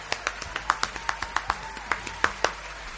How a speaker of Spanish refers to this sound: Pero eh, el mejor amigo y el que no te abandona jamás, jamás de los jamases se llama Jesús de Nazaret. Y le damos un tremendo aplauso.